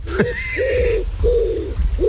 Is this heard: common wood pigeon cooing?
yes